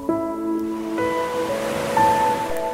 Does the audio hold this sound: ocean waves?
yes